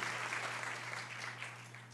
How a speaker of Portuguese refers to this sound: Ele vai ser separado para o Ministério de Evangelismo. Vamos recebê-lo com uma salva de palmas.